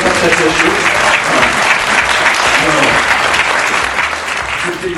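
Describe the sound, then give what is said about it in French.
An audience in a conference room at the Centre Pompidou claps and cheers loudly and steadily for several seconds, making noise for the women who direct and preside, a dense wash of many hands with scattered voices mixed in, tapering only slightly near the end. “je vous propose, chers de faire du bruit pour toutes les femmes qui nous dirigent et qui nous président.”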